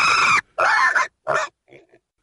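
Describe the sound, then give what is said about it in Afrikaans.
A pig squeals loudly in three harsh, shrill bursts while running around in a pigsty, followed by a couple of fainter, shorter squeaks as it trails off. “Arme Charlie was nog altyd bang vir Burg die boer. Hy skree selfs harder en hardloop in die varkok rond”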